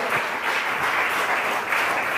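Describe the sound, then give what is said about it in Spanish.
A crowd applauds the Lord steadily, a dense, even wash of many hands clapping at once with no break, sustained at a fairly loud, constant level throughout. “Dele otro aplauso al Señor grande, gigante, que se escucha en el cielo.”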